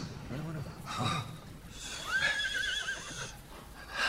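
A horse whinnies with a rising, wavering cry in the middle, framed by breathy snorts and rustling, moderately loud against a noisy background, at night as riders arrive and dismount near a palace.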